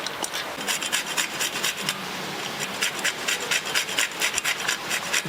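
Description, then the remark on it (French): Quick, steady scraping strokes of a tonka bean being grated on a fine grater, about a quarter to a fifth of the bean, a dry rasping rhythm repeating for several seconds with no voices. “Là je vais râper de la fève tonka.”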